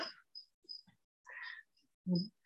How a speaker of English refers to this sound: We hear the sound of a cricket.